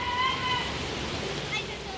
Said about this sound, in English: So, we are by the banks of the Heathcote River, um, Heathcote or Ōpāwaho River. Um, and alongside the uh, Avon or Takaro River, um, these are the spring-fed darlings of Christchurch City.